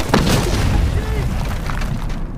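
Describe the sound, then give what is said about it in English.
A loud explosion boom bursts out as an abandoned hut on a mountaintop blows up when its door is opened, rolling into a heavy, rumbling roar that fills the whole stretch without fading much. “And one of our guys in the group actually goes to open the door to pick it up and we're like, no, and it, it explodes.”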